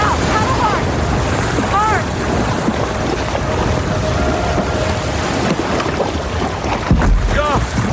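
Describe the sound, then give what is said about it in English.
A small boat being paddled surges through a breaking ocean swell toward a beach, with a loud, continuous roar of rushing surf and wind buffeting the microphone. Faint, indistinct voices cut in briefly over the churning water. “Once the next swell comes in, we're gonna paddle like hell and ride it in.”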